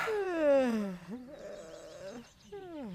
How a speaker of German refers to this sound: begann ganz fürchter, fürchterlich laut und gedehnt zu gähnen.